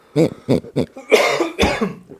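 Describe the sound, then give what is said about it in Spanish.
A man coughs repeatedly: three quick, sharp coughs, then a longer, raspy, hacking fit. Fairly loud, with no talking. “ese güey tose y tose, ¿no?”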